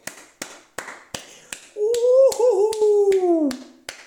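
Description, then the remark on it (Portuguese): Steady, evenly spaced hand claps, about a dozen sharp smacks in a brisk rhythm, joined midway by a long wavering voiced tone like a sustained cheer that fades before the last claps. “Por isso, palmas.”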